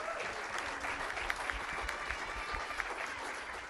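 An audience gives applause to thank two guests at a Norwegian football talk event: claps steadily, a dense wash of many hands with scattered sharper claps standing out, sustained at a fairly even loudness throughout without any voices.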